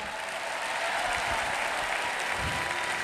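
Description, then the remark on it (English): An audience claps hands to give praise in a steady, dense wash of applause that holds at an even, fairly loud level throughout, with no voices standing out. “Clap your hands once more and give him a praise.”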